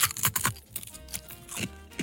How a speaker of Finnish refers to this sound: Mä en tiedä, onko mä ikinä röpistänyt oikeasti onnenkeksiä auki. Mutta siellä onko siellä kai siellä on paperi sit sisässä.